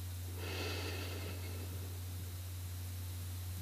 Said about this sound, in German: Wir atmen jetzt gemeinsam ein paar Mal tief ein und aus. Atme ein